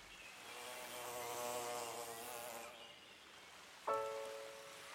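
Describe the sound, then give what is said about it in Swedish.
A steady, droning insect buzz rises over a soft hiss of outdoor background noise on a sunny summer sand beach by a lake, then fades. Near the end, a sharper tonal burst cuts in briefly. “Måsarna skriade och här och var hördes en surrande insekt.”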